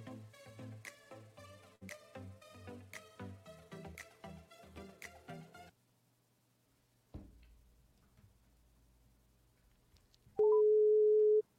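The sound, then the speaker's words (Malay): A phone call's ringing tone plays as a repeating electronic melody for several seconds as a call is placed to a team member in the morning, then falls quiet, followed by a click and a short, loud steady beep. No one speaks. “Saya cuba call team saya tengok pagi ni apa aktiviti dia”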